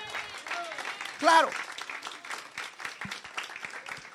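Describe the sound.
An audience at a church service breaks into steady, sustained applause, a dense crackle of many hands clapping that swells briefly louder, with a voice speaking over it.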